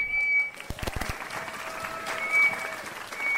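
An audience at Amager Bio bursts into steady applause welcoming the evening's lecturer, many hands clapping in a dense, continuous patter that holds at an even level throughout, with a high whistle-like tone sounding briefly at moments.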